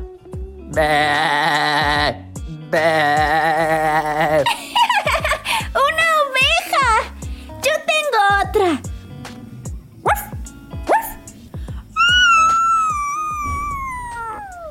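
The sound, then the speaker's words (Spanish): A person vocally imitates a playful puppy with a quick series of yips, whimpers and rising squeaky barks, loud and close, ending in a long high whining call. “un perrito muy juguetón.”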